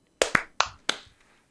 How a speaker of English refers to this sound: All right, clap sync for real this time. clap sync in three, two, one.